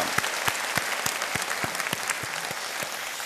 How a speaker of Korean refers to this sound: 인격하신 분을 위하여 축, 축하의 박수를 드립시다. 감사합니다.